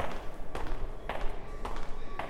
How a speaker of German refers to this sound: Es klopft.